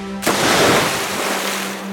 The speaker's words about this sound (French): Sur ce, l'eau du lac éclabousse dans toutes les directions. La fée et la sorcière sont alors trempées.